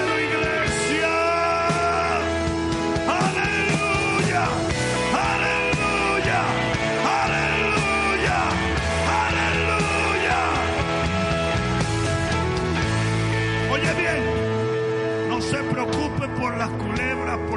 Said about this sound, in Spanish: Al mejor aplauso que me hayas dado al rey. Haga que se oiga en el cielo.